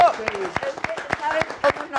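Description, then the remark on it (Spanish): A few people clap in quick, uneven bursts of sharp handclaps while voices call out and talk over the applause, which stays moderately loud throughout; the applause greets guest Eric Rubin on the show Me lo dijo Adela. “Al contrario, aplausos.”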